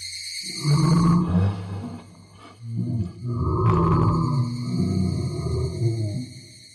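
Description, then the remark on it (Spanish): A deafening, monstrous roar blended with a shrill, screaming tone that seems to come from everywhere, in two long bursts over a deep rumbling low end, with no one speaking. “A continuación, volvió a cambiar, pero ahora en un ruido ensordecedor. Algo entre un rugido y un grito que provenía de todas partes.”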